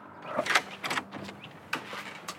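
A large, heavy, black front door with railings on both sides opens, with a few short scraping and clunking bursts over a couple of seconds at moderate loudness and no voices.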